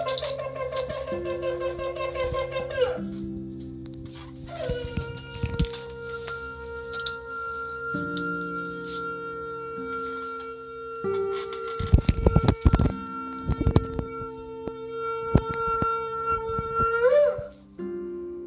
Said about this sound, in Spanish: Así que escuchemos ese shofar y ese deseo de que también las almas de todos los que nos escuchan sean despertadas para mejores cosas en este año por venir.